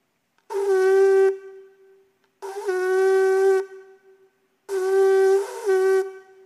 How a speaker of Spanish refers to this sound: ¿Y sabe cuál es el Shebarim? Se lo voy a explicar. Son tres sonidos de mediana duración. Tres veces de mediana duración. Ese era el Shebarim.